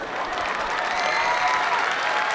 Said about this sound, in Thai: ปรบมือให้ฟูจิครับ